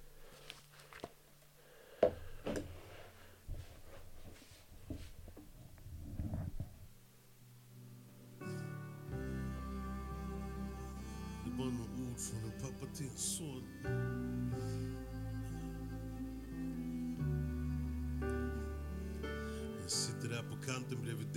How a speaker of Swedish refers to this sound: Och den var jävligt fin. Eh, superfin. Jag ska gå och eh, hälla upp ett glas vin bara. Så medan jag gör det så får ni lyssna lite på låten här.